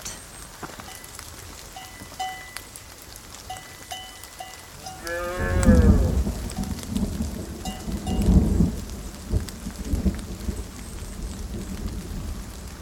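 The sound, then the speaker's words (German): Steady heavy rain hisses throughout on a foggy mountain pasture while cows moo twice, one long low call in the middle and a second shorter one soon after, both clear above the downpour. “Hier gibt es Weiden mit Kühen.”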